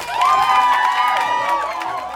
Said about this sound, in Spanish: Mumablu ha logrado extinguir el incendio, Está sofocado, ahogado en toses y tiene la cara llena de hollín, pero todos le aplauden y vitorean.